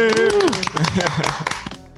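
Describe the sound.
Brisk, irregular clapping fills two seconds, with a voice calling out a rising then falling cheer at the start and talk mixed in over the applause.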